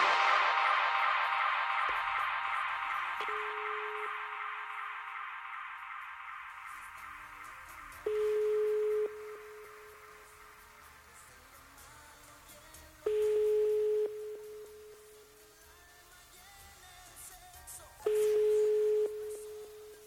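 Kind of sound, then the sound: signal or alarm, telephone call ringing unanswered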